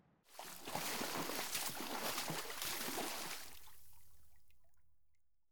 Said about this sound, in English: Agus bathing in a tub filled with water.